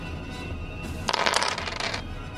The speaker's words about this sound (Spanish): Tu intelecto es de... 4. 4, entonces tiras cuatro dados amarillos.